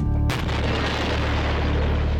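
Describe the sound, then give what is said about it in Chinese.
A single sharp explosive blast as an explosive charge with a detonator, set in a bucket of paint inside a house room, is set off to try painting the room: a sudden loud boom followed by a long rumbling, hissing roar of debris that stays loud to the end. No one speaks. “爆炸后，屋内变成了什么样子了呢？”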